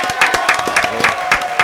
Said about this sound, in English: We were celebrating our three-year anniversary. Can we clap on one time for three years doing this real quick?